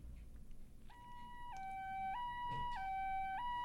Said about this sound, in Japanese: 遠くでサイレンの音が聞こえる